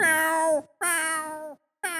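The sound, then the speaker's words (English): A person imitates the meowing of their cat Ellie with loud, drawn-out meows, two long wails in a row and a third just starting, clear with brief pauses between them. “time she does it too, she'll like I can hear her in the house because she'll do that like”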